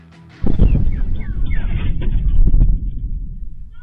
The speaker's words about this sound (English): that boom or set of booms there posted to Twitter by a guy who heard the sound of fighter jets that went supersonic